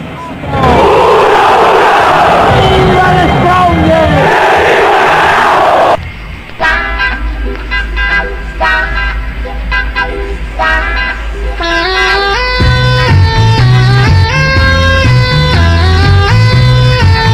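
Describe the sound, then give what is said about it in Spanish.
A loud crowd roar fills the first few seconds, then cuts to a music track played by the DJ before The Strongest's starting eleven for the match is announced, with bright melodic lines, joined later by a heavy, pulsing bassline that carries it to the end. “Señor DJ, póngame música, preámbulo de por medio.”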